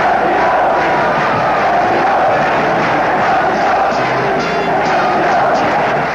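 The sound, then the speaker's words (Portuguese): A loud, dense roar of São Paulo fans cheering and chanting at the Morumbi after the end of the final against Santos, celebrating São Paulo as 1980 Paulista champion, a continuous wall of crowd noise that stays steady and intense throughout with no individual voices standing out. “Com o fim do jogo, começou a grande festa da torcida tricolor.”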